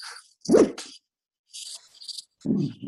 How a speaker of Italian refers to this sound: Scusate intanto il cane che abbaia, perdonatemi.